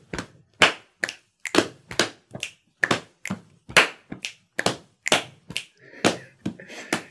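Body percussion in a steady repeating pattern of thigh slaps, tummy slaps, claps and finger snaps (thighs, tummy, clap, snap), about two hits per second, crisp and fairly loud, with no voices over it.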